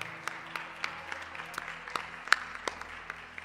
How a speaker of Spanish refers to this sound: Así que sean todos bienvenidos, de verdad. De, déles aplauso.